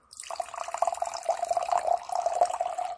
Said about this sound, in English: There's actually still some carbonation in there. That's good. Um, oh my god! As soon as I pop that off, I smell so much friggin' raspberry. It is amazing. Let's see if you can hear me pouring it.